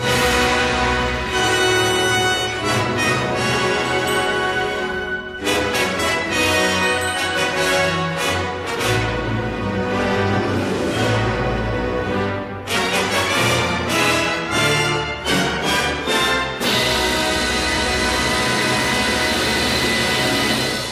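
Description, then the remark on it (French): Dense, loud orchestral music by Korngold plays throughout with full, sustained harmonies and sweeping swells, shifting to new passages a few times, with no voices over it. “Et puis on va encore écouter un petit bout de Korngold hein, pour finir.”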